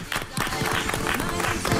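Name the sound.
studio applause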